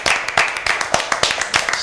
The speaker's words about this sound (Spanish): Aplauso para nosotros, por favor.